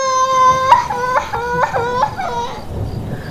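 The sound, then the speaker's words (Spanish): A girl sobs and cries in a high, wavering voice, her wails breaking into short rhythmic catches, fairly loud over a low background rumble. “La madre Clara se desmaya una y otra vez y nadie le hace caso, hasta que desiste en el desmayo al ver a su hija Amelia ahogada en el llanto.”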